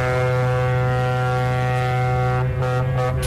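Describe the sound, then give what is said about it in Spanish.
A single loud horn blast holds a steady, low, buzzy tone with rich harmonics for just over three seconds, sounding alone without any voices. “cuando suene la bocina, que es esta.”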